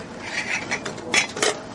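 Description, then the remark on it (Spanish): A metal utensil clinks and scrapes against a pot while garlic soup is whisked, in a few irregular bursts, bright and moderately loud, with no voices. “Voy a batir la sopa de ajos.”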